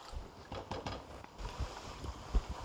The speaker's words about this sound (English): You can hear mine boiling. It's just enough to kind of mix all the flavors together. Really just needs a minute to sort of become one.